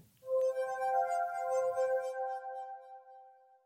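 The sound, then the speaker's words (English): A short chapter transition chime: one bright, glassy ring struck once, its clear tones hanging in the air and slowly fading over about three seconds, with no voices. “like an audiobook, when we change chapters, you'll hear this tune.”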